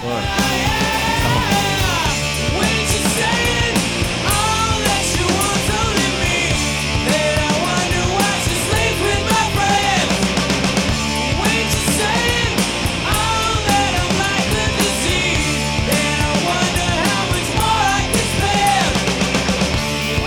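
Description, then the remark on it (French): A loud, somewhat depressing and intense pop-punk, power rock hit plays its chorus throughout, with driving drums, dense distorted guitars and energetic sung vocals that stay at a steady high intensity from start to finish. “mais c'est une tune, un gros hit de musique punk, pop.”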